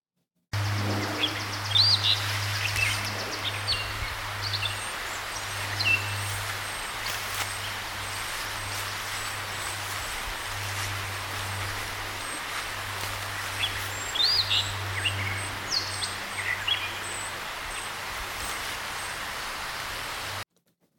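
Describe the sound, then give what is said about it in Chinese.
A gray catbird mimics the song of an Eastern Phoebe: two bright, rising chirpy phrases a dozen seconds apart, heard over a steady low hum and background hiss. “再来是一只灰猫朝东模仿东非比霸王的鸣唱。”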